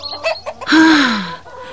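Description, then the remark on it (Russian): A hen cackles after laying an egg, in a village in summer: a few quick, choppy clucks followed by one loud, drawn-out squawk that slides downward, with no voices. “Мама, мама, сейчас наша курица снесла яйцо.”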